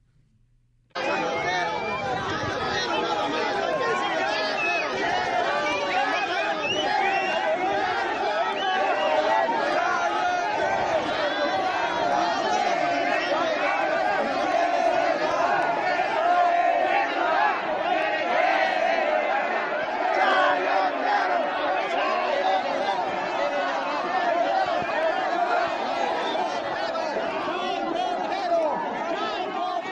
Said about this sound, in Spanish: fue increpado por decenas de personas que sí, pues ya en la turba se convierten en muy valientes para gritar al unísono así.